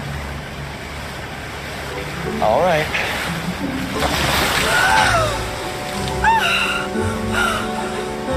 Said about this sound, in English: Oh. It's going in a different direction. The water's getting a little choppy.